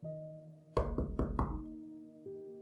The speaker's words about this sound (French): Lorsque Raphaël rentre dans la chambre de Sarah, il fait bien attention bien sûr à frapper à la porte avant.